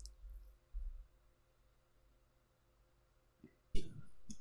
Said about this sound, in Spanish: Lo siento por el sonido del teclado, pero es que mm, si no. La redacción, la redacción, sonidos de la redacción.